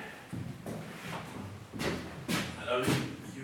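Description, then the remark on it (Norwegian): A heavy prison door in Halden, Norway, creaks open onto the exercise yard and shuts with a series of loud clunks and thuds, with faint background noise between the knocks. “Åpner døra ut i, ut i luftegården.”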